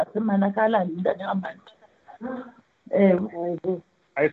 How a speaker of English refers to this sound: I can tell whose voice I can hear at the background. Please, colleagues, please mute. Otherwise, your voice is your identity.